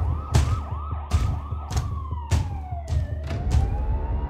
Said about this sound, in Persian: صدای آژیر ماشین های پلیس تمام محوته را برداشت